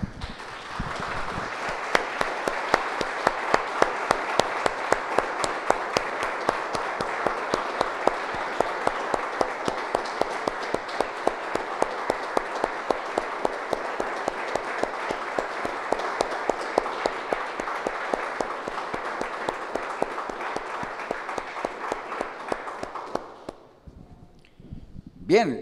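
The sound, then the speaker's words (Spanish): A church audience applauds the Lord after a prayer. The applause holds steadily for over twenty seconds, a dense, even wash of many hands clapping at once, before it tapers off and fades out near the end. “Damos un aplauso, hermanos, al Señor.”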